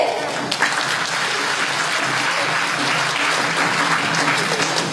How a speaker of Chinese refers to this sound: 同学们，拿出你的尖叫与掌声，让我们欢迎三马首句。